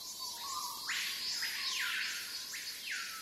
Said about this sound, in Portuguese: A gente teve a oportunidade de parar o carro em alguns momentos, descer e ficar em silêncio. Eu até levei um gravadorzinho de áudio, fiz esse registro do áudio da floresta amazônica. Isso é muito impressionante.